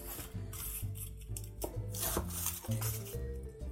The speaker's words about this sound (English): All right, so we're gonna get started by chopping our small yellow onion and a clove of garlic.